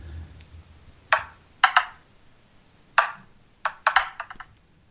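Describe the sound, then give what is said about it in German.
A dice app's roll, landing on five: bursts of sharp, clattering clicks in irregular clusters, tumbling and pausing, then a final rapid flurry of taps. No one speaks. “Okay, dann lausche dem Würfel.”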